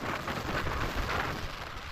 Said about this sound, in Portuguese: Este é o silêncio a 80 metros de altura